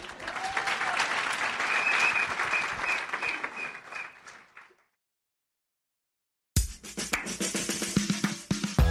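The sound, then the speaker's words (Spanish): A crowd applauds in tribute to a woman with dense, steady clapping for about four seconds, then the applause tapers off into silence before a different, busier sound starts. “de verdad que un aplauso para ella.”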